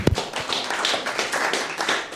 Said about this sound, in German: Genau, könnt klatschen, ist richtig.